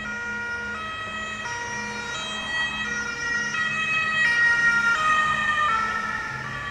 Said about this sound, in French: On l'observe par exemple lorsqu'une ambulance passe tout près de nous. En s'approchant, le son des sirènes nous semble aigu, alors qu'il est plus grave lorsque l'ambulance s'éloigne.